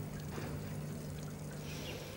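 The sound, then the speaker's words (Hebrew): Water pours out in a steady continuous stream, an even splashing rush that keeps going for a couple of seconds with no voices over it. “אני שתיתי כל כך הרבה מים על חשבון העבודה, שאני חושב שהגיע הזמן שאני אחזיר קצת, לא?”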